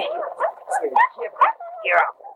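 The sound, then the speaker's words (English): A wet, half-drowned dog just brought to shore from the water whimpers and yelps in a rapid series of short, high whining cries and small yips, rising and falling over a couple of seconds. “there's your dog, Jim. Still very much alive.”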